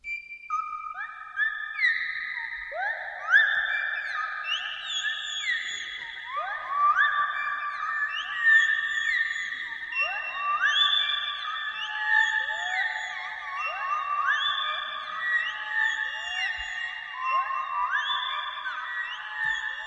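A theremin imitates a flock of birds, evoking a treetop full of birds, with many overlapping sliding whistles and swooping chirps layered densely together in a continuous, eerie chatter of steady loudness, with no talking.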